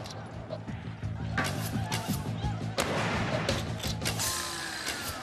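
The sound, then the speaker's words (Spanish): Several sharp rifle shots crack out loudly at irregular intervals, fired from single-shot rifles by soldiers and a civilian defending behind an improvised log corral, over a steady low droning background that continues throughout. “Un miembro civil del grupo, Al Colvin, se refugió y se dispuso a disparar con su rifle.”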